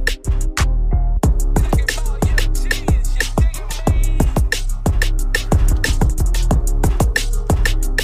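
A rap song plays loudly and continuously, driven by deep, booming bass hits and a rapid, crisp hi-hat pattern over a steady beat.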